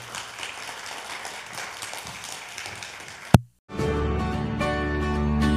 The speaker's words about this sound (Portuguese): Graças a Deus. Dê um aplauso ao Senhor nesta noite.